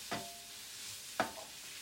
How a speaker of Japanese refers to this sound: 焦げ茶色になるまで炒めてくれということでございますだからこの玉ねぎが炒め終わるまでは